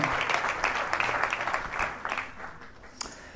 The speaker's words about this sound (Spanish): Le aplaudimos a nuestro Dios bueno.